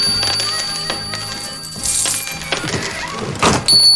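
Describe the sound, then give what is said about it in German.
Several coins drop one after another into a donation chest, each landing with a bright metallic clink and brief jingle, fairly loud, with no talking. “Dort ist auch die legendäre Zeitrisse-Spendentruhe aufgestellt. Werfen Sie doch bei Gelegenheit ein paar Münzen hinein.”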